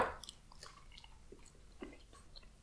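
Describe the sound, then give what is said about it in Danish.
Quiet chewing of dense rye bread, eaten after drinking vodka, with soft irregular crunches and moist mouth sounds repeating every half second or so, no talking. “Spiser rugbrød”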